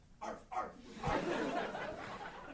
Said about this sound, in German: In der Ferne, vielleicht sogar aus dem Nachbardorf, hörte man einen Hund bellen.